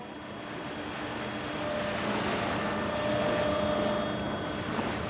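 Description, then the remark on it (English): A steady boat motor drones as the boat pulls up to a pier at Honolulu Harbor, Hawaii, a low continuous engine rumble with a faint whine on top that swells slightly midway and then holds, with no voices. “Large passenger ships dock alongside cargo and fishing boats, as well as the occasional research vessel. We pulled up to the pier”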